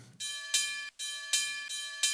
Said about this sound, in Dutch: En dus eh, de befaamde eh, originele bel uit de oude Limburgse mijnen komt erbij. Als je denkt van, hé, die wordt heel eh, snel afgekapt, deze bel.